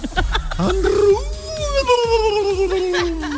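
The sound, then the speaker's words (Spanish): A person imitates a fox with one long, strained, wavering howl that slides slowly downward in pitch, loud, over steady low thumping in the background. “Ole, pues muchas gracias chicos por hacer el zorrito.”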